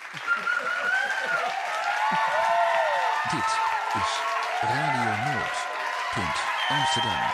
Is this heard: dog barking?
no